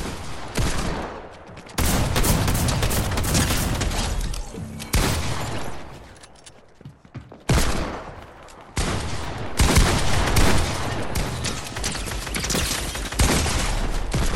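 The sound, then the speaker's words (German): Loud bursts of rapid video game gunfire, with dense automatic fire cutting in and out in long volleys and brief lulls between them, no voices. “ich in eh ihm drin bin und keinen Schuss treffe.”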